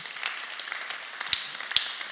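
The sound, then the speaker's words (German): Audience applause given for Jesus, a steady, dense patter of many hands clapping at once, with a few sharper claps standing out, sustained for a couple of seconds with no one speaking. “Komm, lass uns Jesus mal einen Applaus geben.”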